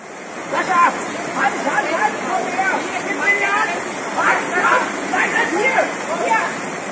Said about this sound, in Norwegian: Her hører lyden av vann, masse vann. For ekstremværet i Tyskland og Belgia har krevd over 150 liv, og 1300 personer er ikke gjort rede for.